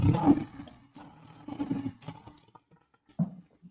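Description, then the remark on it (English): A lion roars in a series of deep, rumbling bursts, loud, ending with a shorter growl after a brief pause. No one speaks. “Let's give Donovan Peoples Jones the good old lion roar.”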